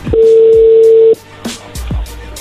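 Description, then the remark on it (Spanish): A phone call connecting: a loud, steady mid-pitched tone holds for about a second and cuts off abruptly, followed by a few soft clicks and low thumps. “A ver, ya entró la llamada, contéstale.”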